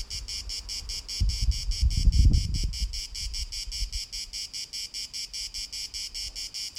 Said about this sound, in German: Auf der anderen Seite, wenn man überlegt, warum tun diese Grillen das? Die müssen ganz schön hart arbeiten, um die Auserwählte zu kriegen dafür, ne?